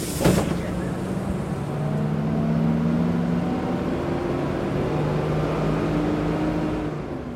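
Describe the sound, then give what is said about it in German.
A steady, loud engine drone with low humming tones, a sharp thump at the start, and faint murmurs of voices blending into the rumbling interior noise of a moving city bus riding into the town centre, a trip of about 15 minutes. “Mit dem Bus ins Zentrum.”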